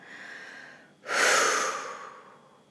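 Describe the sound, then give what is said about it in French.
A single strong, breathy exhale through the mouth during a guided breathing exercise, loud, rushing out and slowly trailing off after a quiet pause with a faint steady background hum. “Et tu souffles fort par la bouche en imaginant lâcher ces peurs au sol.”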